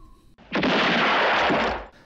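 A single loud gunshot blast from a film score, with a rushing, noisy tail that sustains for over a second before cutting off, prominent with no talking.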